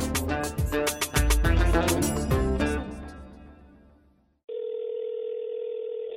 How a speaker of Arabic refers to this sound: لوقت كتير طويل ما كنت فاهمة ليش صوت الرنين اللي بسمعه قبل ما حدا يرفع السماعة بخليني متوترة متوترة سواء ارتفعت السماعة أو ما حضرت علي أصلا هذا الصوت ولسنوات طويلة كان دايما مرافقني وأنا بحاول أرن على الممثلية الأردنية في رام الله